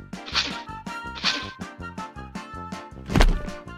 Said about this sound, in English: Thump! Wendy falls to the ground.